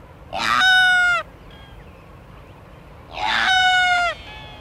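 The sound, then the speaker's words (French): Two loud, drawn-out nasal calls from a sooty albatross at the top of cliffs on an island, each lasting about a second and separated by a short pause, ringing out clearly over a faint wind-like background. “Ce sont des albatros, les albatros fuligineux.”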